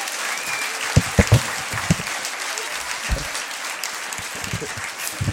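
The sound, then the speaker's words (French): A crowd applauds steadily for several seconds for Anthony Verpillon, voice of the Verts match commentaries on the Verts supporters' web radio, a dense wash of clapping with a few sharper, louder claps standing out. “S'il vous plaît, un du bruit pour Anthony Verpillon.”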